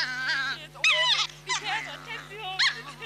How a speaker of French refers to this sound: Il paraît que ce petit chien voudrait mordre mon nez.